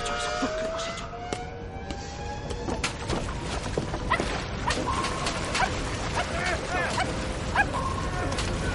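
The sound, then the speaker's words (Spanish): A dog barks in short yips and whimpers with rising, whining tones as someone grabs hold of it, set against a busy background of sirens or wailing tones and scattered clattering noises. “Para coger al perro, suelta el maletín, que se hunde en el océano.”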